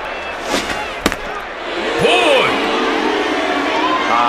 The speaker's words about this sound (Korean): 빗발치는 관중들의 야유에도 불구하고 마동탁 선수를 포볼로 걸을 모양입니다.